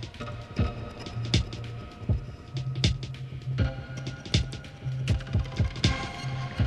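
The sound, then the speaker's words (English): Resonant synth percussion from the resonator of an Atom module pulses in a steady, repeating rhythm, each low tonal hit sharply triggered, with bursts of hissy noise from a Make Noise Telharmonic, run through a VCA, bleeding through on the attacks; no voices, moderately loud. “And what's really cool about the Atom, much like the rings, it has a resonator in. So I'm using the noise output from the Make Noise Telharmonic and running that into a VCA.”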